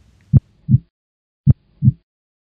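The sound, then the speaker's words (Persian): Two slow heartbeats, each a sharp low thump followed by a softer, duller second beat, in a steady lub-dub rhythm with a short silent gap between. Clear, no talking. “خب حالا برگردیم به ضربان قلب خوب به این صدا دقت کنیم”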